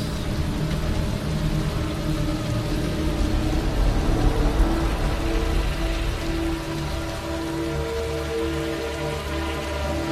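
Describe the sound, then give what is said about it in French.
Heavy, pounding rain pours down steadily, a dense, continuous hiss of drops drumming on surfaces, loud, with a low rumbling undertone throughout and no voices; rain in Raccoon City, the zombie-overrun city of the game Resident Evil 2 Remake. “Imaginez une pluie battante.”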